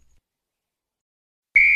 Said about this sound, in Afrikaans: Die fluitjie blaas weer om die einde van die eerste afdeling van die kompetisie aan te kondig.